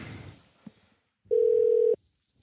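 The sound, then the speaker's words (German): A single steady ringback tone sounds on an outgoing phone call, a loud, mid-pitched continuous beep lasting under a second, preceded by a faint rustle and a brief click, with no voices. “Oh, es läutet. Es läutet.”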